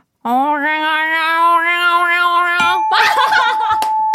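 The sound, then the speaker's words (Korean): A person imitates an angry cat with a long, steady, nasal yowl lasting over two seconds, then breaks into a loud, harsh, noisy burst. “화난 고양이.”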